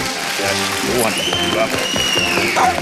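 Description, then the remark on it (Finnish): Steady, loud applause from a crowd, mixed with cheering voices and a rising whistle, sustained throughout without a break. “Ja vielä kerran aplodit kettujen kautta.”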